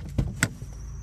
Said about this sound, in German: Vor allem, wenn man dann auch noch äh, vorwärts, rückwärts einparken muss. So, habe ich jetzt gemacht. Warum quietscht der Wagen eigentlich so laut? Kann man das hören? Dass der quietscht?